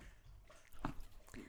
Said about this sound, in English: Luna, sorry, that's the dog drinking water in the back. I'm like, Luna, she's so thirsty.